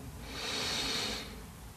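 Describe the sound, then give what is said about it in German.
A single deep inhalation through the nose, a soft airy rush that swells for about a second and then fades, quiet with no talking, taken as the third deep breath of a guided meditation. “Wir nehmen den dritten tiefen Atemzug und atmen ein.”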